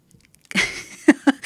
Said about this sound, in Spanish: Hasta tragaste medio raro.